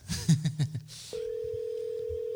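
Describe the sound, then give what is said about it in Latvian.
A few short electronic beeps give way to a steady, moderately loud phone line tone that keeps going unanswered to the end, with no voices. “nu, Rudolfs pagaidām neceļ”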